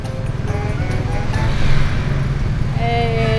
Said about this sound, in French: la circulation à Phnom Penh, c'est pour l'instant, je pense qu'on a vu de pire. Il y a énormément, énormément de scooters, beaucoup de voitures aussi, beaucoup de tuk-tuk et un peu de pousse-pousse, des vélos euh, avec euh, porteur d'une personne.